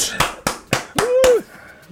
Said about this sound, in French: Ah, il faut que je mette un jiggle applaudissement parce que là, bravo.